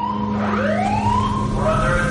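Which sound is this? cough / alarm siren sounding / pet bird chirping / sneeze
alarm siren sounding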